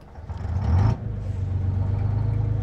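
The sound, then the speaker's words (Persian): A heavy double-decker bus engine rumbles and builds, with a short hiss of air before it settles into a steady, low drone as the bus pulls away from Mojasameh Square toward the Jamshid neighbourhood. No one speaks. “سوار اتوبوس شدم و به راننده گفتم آقا ببخشید من مال اینجا نیستم میخوام برم جمشید کافه شکوفه نو راننده هم یه سری تکون داد و راه افتاد”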